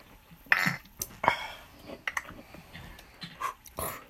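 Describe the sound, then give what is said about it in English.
Glasses clink together a few times in a toast, mixed with quick gulps, throat-clearing and sharp exhales as ceremonial shots are knocked back, with no clear talking. “So before we get into Avatar, let's take our ceremonial Cheers. shots.”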